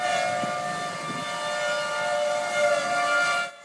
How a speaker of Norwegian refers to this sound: Tornadoene, og sirenene som lyder når de er på vei, har vært en del av oklahomernes liv alltid.